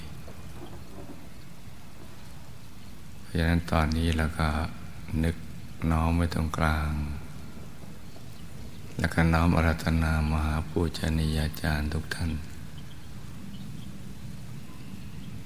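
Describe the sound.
Steady, even rain hisses over a swamp for the whole stretch, with no distinct drops standing out, while a voice speaks calmly over it in two passages.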